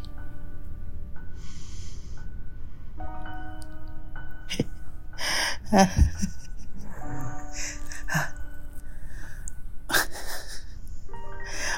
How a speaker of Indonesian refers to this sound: terus dia tidur. Ngorok lagi.